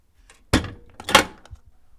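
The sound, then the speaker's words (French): A door closes with a heavy, echoing thud, then a second solid bang follows just over half a second later before the sound fades into quiet. No one speaks. “La porte fermée. refermée.”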